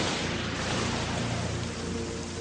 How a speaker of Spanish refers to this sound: En Las Vegas, retumba la tormenta en el desierto.